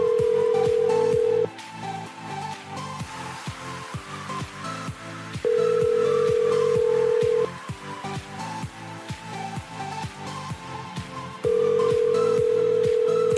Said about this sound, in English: You know you're onto a winner when it's just a silent voicemail with noise in the background.